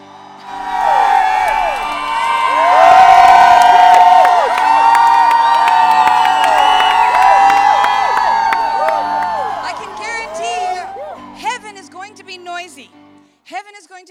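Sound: audience shouting praise loudly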